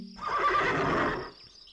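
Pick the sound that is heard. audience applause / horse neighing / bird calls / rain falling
horse neighing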